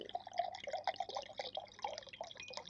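Fresh cold water pours steadily into a glass, a bright bubbling trickle with gurgling, rising tones, running continuously without talk over it.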